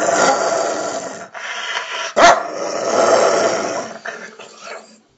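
A dog named Comet barks and growls in a rough, continuous burst, with a sharp louder bark near the middle before the sounds trail off into silence.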